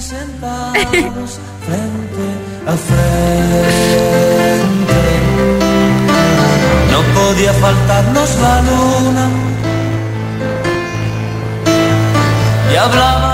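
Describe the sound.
A romantic Spanish-language pop song plays loudly with a male vocal over a full band arrangement, opening sparse for a few seconds before swelling into a steady, rich accompaniment.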